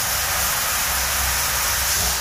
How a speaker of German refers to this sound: So, ich befinde mich jetzt also in, in der Duschkabine. Ich schließe die Duschkabine auch. So, ist ja logisch, dass ich die schließe. So, und jetzt werde ich duschen.